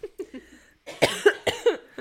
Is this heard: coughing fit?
yes